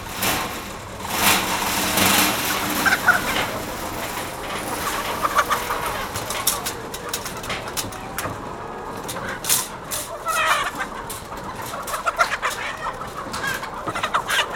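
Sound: chickens clucking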